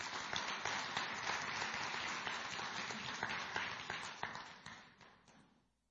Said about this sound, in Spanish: Oh, yo le estaría dando un aplauso al Señor por eso. Aleluya.